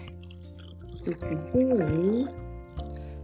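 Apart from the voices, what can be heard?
wine being poured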